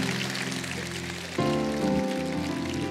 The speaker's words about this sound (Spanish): allá están, mire, denle un aplauso a los de vialidad.